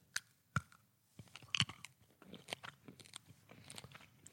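Crunchy chewing on small, hard sugar pearls: a few sharp, loud crunches at the start, then a run of softer, irregular cracks and munching with no talking.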